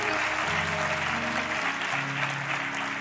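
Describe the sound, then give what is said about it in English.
An audience gives God a hand clap offering, a dense, steady wash of applause that fills all three seconds, with sustained organ or keyboard chords playing underneath. “Come on, give God a good hand clap offering.”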